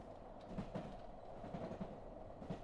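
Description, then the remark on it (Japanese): A revived sleeper train of the country once called India clatters steadily along the rails on a four-day journey toward the sea, a dense rumbling roar with faint rhythmic clicks of the wheels over track joints, with no voices. “復活したのはインドと言われていた国の寝台列車だった”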